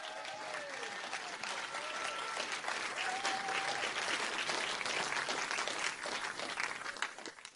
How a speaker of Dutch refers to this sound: Geef Jezus een geweldig applaus.